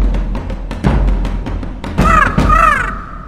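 A crow caws twice, loud and harsh, each call a rasping, slightly rising-then-falling cry, after a second or two of soft rustling, tapping background noise.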